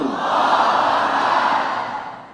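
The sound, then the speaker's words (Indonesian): A large crowd shouts the takbir, "Allahu Akbar," together in one sustained, loud roar of massed voices, holding steady for about two seconds before tapering off slightly at the end. “larilah Belanda pontang panting mendengar takbir tadi”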